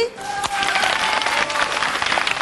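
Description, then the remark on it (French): The studio audience of the TV show Club Dorothée on TF1 applauds steadily at its launch on 2 September 1987, a dense wash of many hands clapping that holds at an even, loud level for a couple of seconds, with some faint tonal sounds mixed in. “On applaudit”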